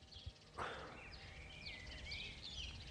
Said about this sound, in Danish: men øh, der er godt nok gang i, i, i fuglelivet.